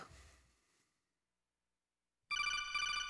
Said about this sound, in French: Téléphone, oui